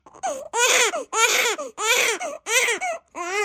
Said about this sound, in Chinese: 屋内。传来了一阵婴儿啼哭之声，生了，孩子生了。